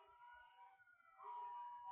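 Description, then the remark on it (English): A Japanese ambulance siren wails outside the window, a steady two-tone pitch sounding muffled, swelling louder in the second half of the short clip with no one speaking. “Sorry, a Japanese ambulance is blasting outside the window.”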